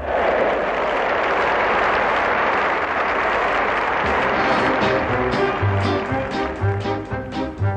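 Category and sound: crowd, enthusiastic applause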